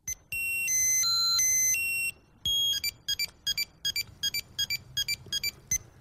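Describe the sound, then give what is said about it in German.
A Tamagotchi, a small electronic toy in a colorful plastic egg, beeps out a short stepped melody of high square tones, then chirps in a rapid series of brief, evenly spaced bleeps, clear with no voices. “Tja, von wegen dieses Plastikei ernsthaft gewendet, ist die Vorhut eines digitalen Großangriffs auf Millionen Kinderseelen. Jawohl, und der hört sich so an.”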